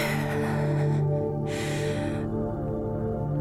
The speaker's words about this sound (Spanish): Tomé aire.